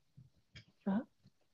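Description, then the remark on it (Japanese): A dog gives one short, sharp bark that stands out loudly over faint, muffled background sounds, then everything settles back to quiet. “うん、うん、犬がワンって吠えてる音、うん、あ本当”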